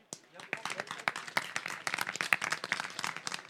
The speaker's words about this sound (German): Ich freue mich sehr, dass er heute hier ist und bitte begrüßen Sie mit einem großen Applaus Ihren Wirtschaftsminister, Professor Dr. Andreas Pinkwart.